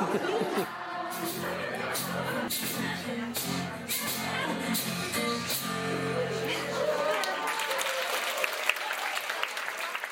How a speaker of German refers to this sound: Sie haben richtig gehört. Viele Menschen in einer Kneipe zusammen. Sie haben Spaß, sind komplett ausgelassen und in den meisten Gesichtern gibt es so ein Lächeln, das man bei Menschen findet, die gerade erfahren haben, dass alles gut ist.